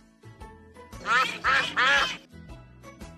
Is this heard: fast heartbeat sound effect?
no